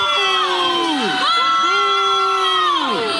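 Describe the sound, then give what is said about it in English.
A large crowd of young voices, students at a graduation, boos loudly and continuously at a student dressed as an East German soldier walking across the stage, long drawn-out jeers sliding down in pitch and swelling in overlapping waves throughout. “Here are the students booing this kid as he walked across the stage, and a student that witnessed the acts breaking down exactly what happened.”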